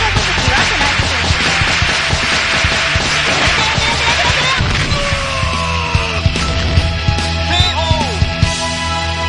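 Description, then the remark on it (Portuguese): A flurry of sharp lashes from a whip from the Republic of Congo cracks repeatedly in quick succession over a loud, dense wash of noise, with a few squealing, sliding tones near the end. “Peraí que eu vou agora pegar o chicote da República do Congo, tá? E vou dar um especial em vocês.”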